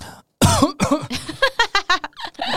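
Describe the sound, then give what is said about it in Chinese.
A person coughs: one loud, harsh, voiced cough, then a quick run of shorter hacking coughs in an uneven rhythm, ending in a rougher, breathy cough. No talking. “你你再说一次，我刚刚咳嗽没听到。”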